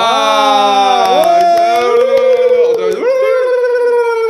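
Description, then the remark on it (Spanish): A turkey gobbles loudly for about four seconds, a strained, warbling call with wavering pitch and quick rattling pulses through the middle, with no talking over it. “Nos trajimos al guajolote en lugar de los aplausos.”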